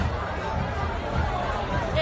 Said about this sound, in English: That's the sound of Moonshadow Tavern, or better known as Mooney's, on a Saturday night. Mooney's is the bar of Ithaca College. It's that bar.